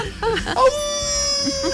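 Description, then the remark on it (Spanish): A person imitates a wolf howl: a brief rising vocal swoop, then a long, steady, moderately high wail held to the end, with some muffled voices underneath at the start. “A ver, da un aullido.”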